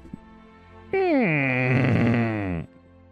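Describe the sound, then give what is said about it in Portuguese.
A voice imitates a cabin door creaking open after a knock, in a role-playing game: one drawn-out, groaning creak that slides downward in pitch and roughens toward the end, loud, lasting under two seconds. “A porta abre e faz aquele ranger.”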